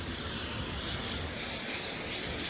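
A jet engine of Air Force One, the US presidential plane, hums in a steady, continuous roar with a thin high-pitched whine running through it, moderately loud and unchanging, with no voices.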